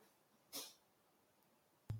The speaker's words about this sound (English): Sorry, my dog's about to go nuts in the background. I'm trying to keep him quiet, but you know, he's got to keep me safe.